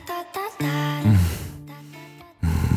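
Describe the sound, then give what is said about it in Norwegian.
A person vocally imitates the shocked gasp made on first stepping into an ice bath: a few short voiced breaths, then a long, strained, wavering cry, loud, ending in another sharp burst. “Kan du gjengi lyden du lagde når du gikk i vannet første gang?”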